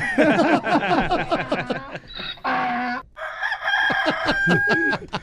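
A rooster crows loudly once near the middle, surrounded by busy, rapid clucking and squawking from chickens, with no one talking.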